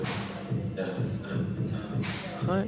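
A man standing by a stage swings a towel and strikes with it in a steady, strong rhythm, producing dull thuds and whooshing swipes over a low, continuous background.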